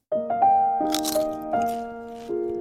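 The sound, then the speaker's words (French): A few crisp, crunchy bites of food, three or four short crackling bursts, layered over a steady musical tone that steps up in pitch like a short jingle. “Croustille, hein”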